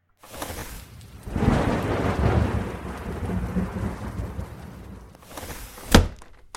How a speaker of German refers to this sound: heute regnet es.